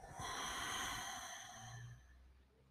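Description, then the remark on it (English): A long, deep exhale of breath during a guided meditation, breathy and airy, slowly tapering off into near silence after about two seconds. “And exhale.”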